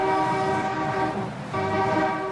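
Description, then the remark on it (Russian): Car horns blare on the streets of Russia in two long, loud sustained blasts, the first holding just over a second, then a brief dip before the honking resumes and continues steadily. No one speaks. “Сигнальте и вы!”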